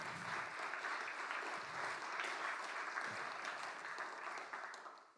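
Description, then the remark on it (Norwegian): An audience breaks into steady, dense applause, a continuous patter of many hands clapping that holds strong for several seconds before tapering off at the end. “Det syns jeg faktisk fortjener en applaus.”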